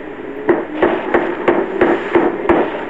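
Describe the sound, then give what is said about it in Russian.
Steady, forceful thumps of a fist on a locked door, about eight heavy blows in quick even rhythm, loud with a dull wooden resonance, and no voices. “кажется, я сломаю дверь, если ты не откроешь.”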